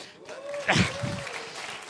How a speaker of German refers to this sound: Und ich habe gesagt, das ist beeindruckend, das ist ein guter Grund, mal zu klatschen.